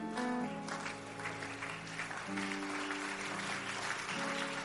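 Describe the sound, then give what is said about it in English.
An audience claps continuously as a clap offering, a dense crackling wash of many hands, with sustained keyboard or organ chords holding steady underneath at an even, loud level throughout. “If you increase that clap offering, the protection is coming to your house and your family.”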